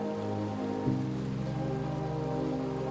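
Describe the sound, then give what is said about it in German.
Rushing river water roars steadily and loudly throughout, a dense continuous wash of sound with a faint low hum beneath it and no voices. “Das lärmende Rauschen übertönt jeden Gedanken, der sich eindringlich versucht einzuschleichen.”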